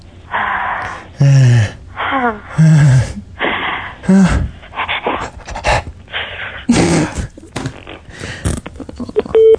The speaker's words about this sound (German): Hecheln.